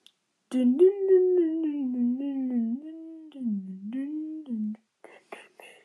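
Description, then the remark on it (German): A voice hums a short, wavering melody for about four seconds, imitating a music box tune, then trails off into a few soft breathy noises. “und äh, das ist halt so eine Art Musikbox wahrscheinlich oder so.”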